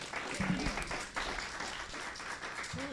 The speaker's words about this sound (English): How about a round of applause for our panel members? Thank you.